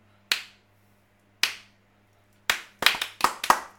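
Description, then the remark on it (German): Hand claps with no talking: two slow, separate claps, then a quick uneven burst of about six more, over a faint steady background hum. “Weil ich, für mich ist klar, jeder muss klatschen können.”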